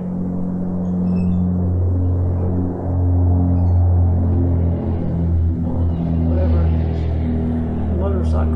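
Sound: airplane flying overhead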